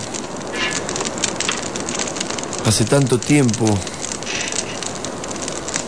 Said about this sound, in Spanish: Bien la luz del fuego, las chispas que saltan.